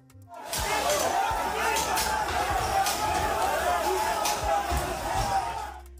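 A dense crowd of protesters storming the Brazilian parliament shouts and yells in a loud, continuous roar for several seconds, with scattered thumps and bangs breaking through the clamor as they break through barriers, run into the building, smash windows and wave their arms over their heads.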